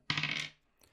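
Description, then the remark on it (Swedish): A die clatters across a hard surface in a quick, bright rattle lasting about half a second, followed by one faint final tap as it settles, with no voices. “Uh, därför tar jag fram en tärning som låter så här.”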